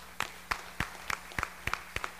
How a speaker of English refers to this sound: If you helped out, I know a lot of them are in the back. Look at all these people. Can we give them a round of applause real quick?